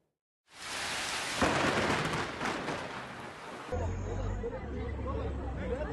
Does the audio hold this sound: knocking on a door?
no